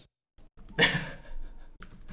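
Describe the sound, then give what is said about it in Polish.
Dry clicking and scrolling from a computer mouse as someone scrolls through an app: a brief burst of plastic clicks and a soft whirring rattle, with a few quieter clicks after it, and no voices. “No, cały czas przewijam.”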